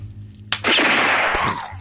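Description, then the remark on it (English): A single sharp, loud pop like bubble wrap bursting, as abrupt as a gunshot, followed by a sustained loud rushing hiss that gradually fades near the end. “Yeah, and that's exactly why I've got the uh, the bubble wrap.”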